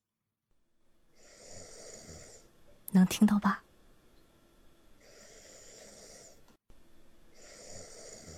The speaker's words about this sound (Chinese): 好巧，有。不过呢，这个录音声不大，给你们听一下啊。我先把歌关了，你们安安静静的听啊。等会儿啊，呼噜，